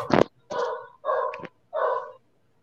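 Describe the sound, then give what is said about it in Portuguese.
Ivanilda's dogs bark in four loud, sharp bursts spaced about half a second apart, with no talking over them. “Ó, oh, a, ca a cachorrada da Ivanilda.”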